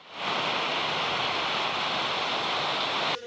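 Floodwater from heavy rains rushes loudly and steadily through city neighborhoods, a dense, unbroken roar of churning water that holds for about three seconds before abruptly cutting off, with no voices.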